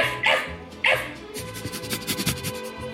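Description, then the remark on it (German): A person imitates a dog: two sharp, loud yapping barks, then a quicker run of softer yips and whiny, panting-like sounds. “Soll ich so ein paar Hundegeräusche machen?”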